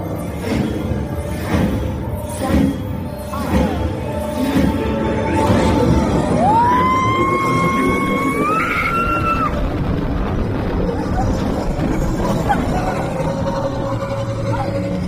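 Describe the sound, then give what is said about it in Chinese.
A roller coaster ride at Disney, recorded throughout on an action camera, roars with steady, loud rushing wind noise, and a rider's high screaming voice rises and holds in pitch for a few seconds midway through. “我刚刚前面想要放一段我在就是坐过山车的，就是做创的那个全过程，因为我确实是带了那个运动相机，然后全程跟录。”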